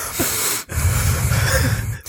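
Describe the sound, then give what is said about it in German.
A voice imitates heavy, labored breathing: two loud, breathy puffs of air separated by a brief pause, with no talking. “Aber ich mache neuerdings auch so, ich, man hört mich atmen.”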